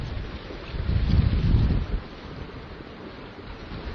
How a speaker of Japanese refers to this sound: これ水の波の音がこれ入ってますかね結構これ風が強いので、池なんですが、海のように波立ってます。もう一定方向に、これ北から南に向けて、波が結構立ってますね。